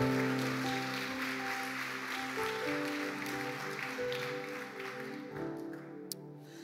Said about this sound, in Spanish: Dele un aplauso al rey de reyes.